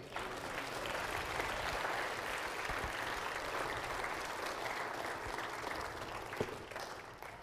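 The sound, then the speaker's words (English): An audience breaks into sustained, dense applause for the Lord during a sermon, many hands clapping steadily at an even level for several seconds, with no voices standing out over the clapping. “Give the Lord a great big hand.”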